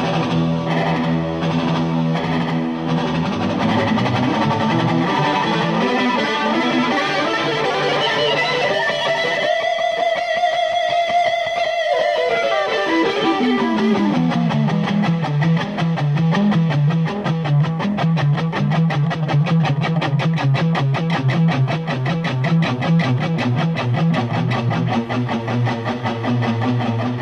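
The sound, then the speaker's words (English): A distorted electric guitar plays a sustained solo, its signal split to create an echo effect so its notes repeat and stack into a dense, layered wash, sounding like two guitars echoing each other; one long high note rises and falls midway, with no voices. “Well, what he does is he splits up his guitar signal and he creates the echo effect, and then it just keeps building on itself.”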